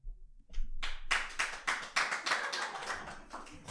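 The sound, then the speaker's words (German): Hands clap in a steady, fairly quick rhythm, about a dozen crisp claps following a brief quiet start, with no talking over them. “Wir klatschen nicht mit uns.”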